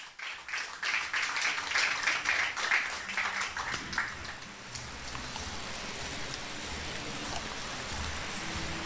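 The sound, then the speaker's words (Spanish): An audience applauds the Lord in a dense burst of clapping for about four seconds, then the applause fades away into a soft, steady room hiss. No one speaks. “Yo que tú le daba un aplauso al Señor.”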